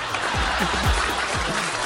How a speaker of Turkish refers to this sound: Buna gülünmeyecek arkadaşlar. Bu da alkışlanacak. Tabii ki.